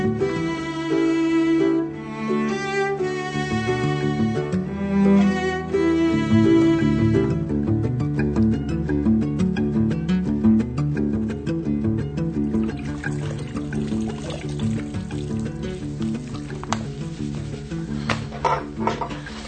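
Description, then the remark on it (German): Water runs and pours steadily for the whole stretch, with trickling and splashing as something is rinsed and cleaned, continuous, with no one talking. “jetzt hör mal auf mit Putzen. Es blitzt und blinkt doch schon alles.”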